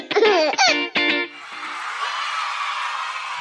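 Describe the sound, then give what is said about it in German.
A baby jingle: a short burst of high, bubbly baby laughter in three quick bursts, loud, followed by a softer sustained airy, shimmering musical wash that fades out. “Und ich bitte an der Stelle gleich nochmal um den Baby-Jingle.”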